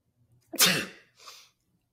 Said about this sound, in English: Would you rather have to fake sneeze or fake vomit in a scene? Fake sneeze. Can you do a convincing fake sneeze?